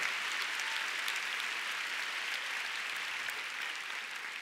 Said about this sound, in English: Come on, let's give God a big clap. Hallelujah. Oh, you want to clap? Let's give God a big hand.